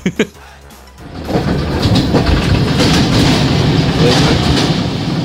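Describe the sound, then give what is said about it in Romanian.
A short voice at the start gives way to the loud, steady rumble of a passing train in Romania, its wheels clacking rhythmically over the rail joints. “Asta e zgomot de tren de da.”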